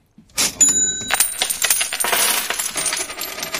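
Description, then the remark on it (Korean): A cash register drawer at a convenience store slides open with a ding, followed by a busy cascade of coins clinking and jingling against each other, fairly loud, with no talking. “편의점에서 예, 돈통 열고 지금 그거예요. 동전 소리도 나고.”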